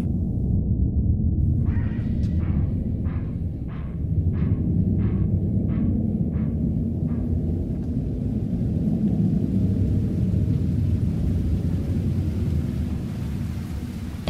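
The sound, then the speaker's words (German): A steady, heavy roar of rain with deep rolling thunder rumbling throughout, loud, with a quick run of about nine regular sharp knocks early on. “begann der Regen.”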